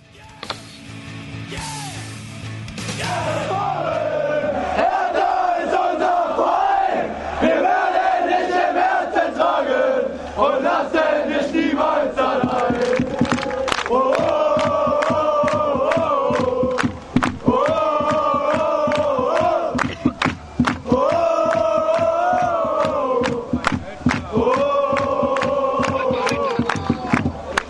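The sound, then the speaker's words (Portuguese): A large crowd of football supporters chants a repeating tune in unison, loud and steady, punctuated by sharp rhythmic claps or drum hits after a brief noisy start. “Então vamos ouvir agora Blauweiss.”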